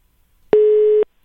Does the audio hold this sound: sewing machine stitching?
no